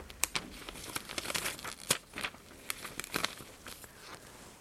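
Soft crinkling and rustling of a doctor's coat and plastic gloves, with irregular crackly bursts over several seconds and no talking.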